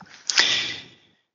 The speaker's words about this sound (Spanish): El hombre abre la puerta. Por supuesto, la puerta gruñe y gime, porque si no, no estaríamos jugando lo que estamos jugando.